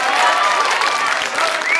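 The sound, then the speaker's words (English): A burst of audience applause at a show, dense and steady clapping from a crowd filling the whole moment, loud with a few cheers and whistles rising through it. “I think we should just have a bit of a round of applause”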